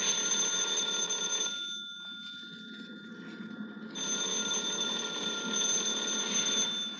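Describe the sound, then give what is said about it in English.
A telephone rings loudly and continuously, a bright electric bell tone that pauses briefly in the middle before resuming at full strength, with no one speaking. “Are you going to answer the phone?”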